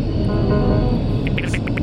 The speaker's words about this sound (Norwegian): Jeg foreslår at vi åpner opp den store hangarporten og sluker romskipet, så kan vi utstudere det. Meget god idé. Fra innsiden. Jeg trykker på eh, hangarknappen nå. Åpne opp døren.